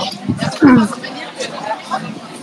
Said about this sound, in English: wow, some crowd. Whoa. It's like suddenly some crowd. I guess that's Cologne.